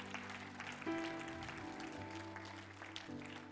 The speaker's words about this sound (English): Would you clap your hands one more time and give them praise?